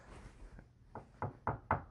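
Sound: knocking on wood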